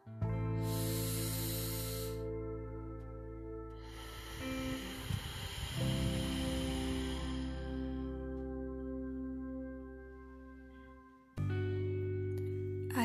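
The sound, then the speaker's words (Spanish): Forceful ocean-wave breathing: long, loud rushing breaths with a hissing, surf-like texture, swelling and fading in a slow rhythm over a steady low hum, with no talking. “esta respiración también se le conoce como las olas del mar, porque se hace exactamente el mismo sonido.”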